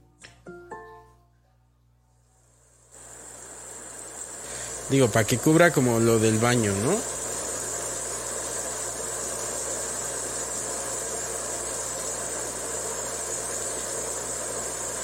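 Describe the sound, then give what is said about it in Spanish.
Recorded rain ambience plays from an Alexa smart speaker as a steady, even hiss that starts after a few quiet seconds and continues unbroken, with a person briefly talking over it. “Muy bien, aquí tiene sonidos ambientales, lluvia.”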